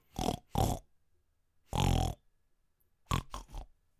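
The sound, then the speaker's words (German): A person imitates a pig's grunting with six throaty snorts: two quick grunts, a longer drawn-out one, then three rapid grunts in a row, with no speech. “Und er fängt einfach an zu grunzen wie ein Schwein.”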